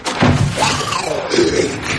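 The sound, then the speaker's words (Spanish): A thrown book lands with a single dull, heavy thud, followed by a low, wavering, drawn-out tone that fades slowly. “Lo tira lejos.”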